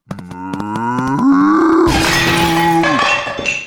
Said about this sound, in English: what are you doing? That dog cow is breaking my beautiful antiques! Silence, filth merchant! It's a gazelle!